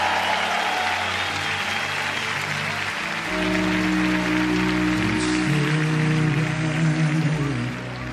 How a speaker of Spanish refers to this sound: Den un aplauso más fuerte al Señor. Lo creemos.